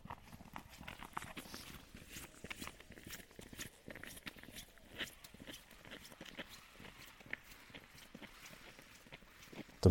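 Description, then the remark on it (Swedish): A long dog leash, pulled behind two women walking a dog, drags and scrapes along the ground in a steady stream of small rattling, whining clatters, mixed with footsteps, at low to moderate loudness outdoors while light snow falls. “De drar, har ett sånt där långt koppel som de drar långt efter sig.”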